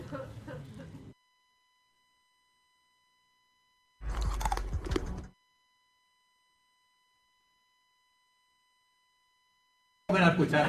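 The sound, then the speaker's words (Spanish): Loud crunching of a person chewing stones, coming in three gritty bursts separated by stretches of silence, the last one cut off at the end. “yo este reconozco que no lo pude ver el de las piedras porque a la que oí el siguiente sonido eh, tuve que dejar de ver la serie.”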